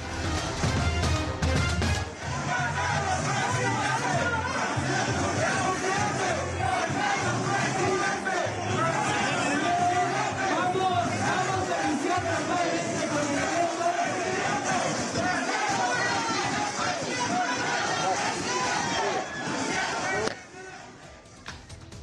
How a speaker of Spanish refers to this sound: el canciller acudió a un mitin del candidato de Morena al gobierno de Hidalgo, de Julio Menchaca. Los habitantes del municipio de Acatlán ovacionaron al canciller y le gritaban presidente. Recordamos el momento.